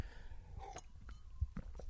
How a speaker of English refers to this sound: So favorite that I thought I'd give you a little pause while I took a sip of water then,